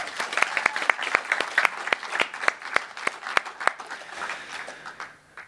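An audience at a Sunday service of Tønsberg Frikirke at Brygga in Tønsberg applauds the worship team with a dense patter of clapping, a few sharper claps standing out, steady for several seconds before thinning and fading out at the end.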